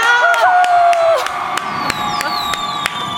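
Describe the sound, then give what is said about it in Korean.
An audience cheers loudly with high whoops and shouts after the announcement of a solo Asia fan meeting tour, backed by a dense wash of clapping and sharp claps cutting through at intervals, sustained for a few seconds. “박수 주세요!”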